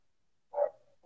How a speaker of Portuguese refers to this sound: Eu tô tampando o microfone aqui porque a Zica tá latindo freneticamente. não, beleza, é só para saber se tá tudo certo. Zica é minha cachorra, gente, para quem não sabe.